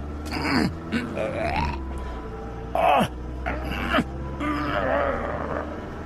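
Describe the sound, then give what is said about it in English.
A voice imitates ragged gasping for breath, a handful of strained, breathy gulps spaced unevenly over several seconds, with a low steady hum underneath. “Gasping.”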